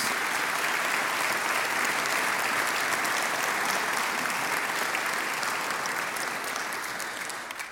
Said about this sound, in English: I would just invite you to put your hands together for all who contributed to this.